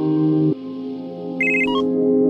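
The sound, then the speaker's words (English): A telephone rings on a hot summer midday during a city heat wave, with a steady electronic tone that shifts pitch partway through, joined by brief higher beeping notes near the end. It is fairly loud, with no talking. “They say it's the beginning of the end, but on one hot midday, the phone rings.”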